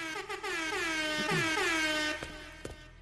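A loud, brassy Air Horn emote blares continuously for about three seconds, its pitch wobbling and sliding, with no talking over it.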